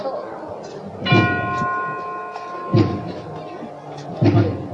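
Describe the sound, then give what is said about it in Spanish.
A tubular bell is struck once and rings with a bright, shimmering tone that slowly fades during a procession with the Calvario float, a sculptural group by Sebastián de Solís. A music band plays behind it, over a steady background murmur punctuated by three dull, heavy thumps at even intervals. “Qué ambiente con el sonido de esta campana aunque se cuelen los, sones de la banda de, música por detrás, pero desde luego trasladados a, otra época con este excepcional conjunto escultórico de, Sebastián de Solís y ese sonido de tubular.”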